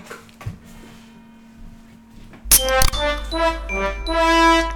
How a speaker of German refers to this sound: Und es läutet die Glocke, ich glaube, das ist wieder das ist Zeichen dafür, dass man... Zeit für die Pinkelpause. Zeit für Pinkelpause, für und Abschluss. Danke, liebe Glocke.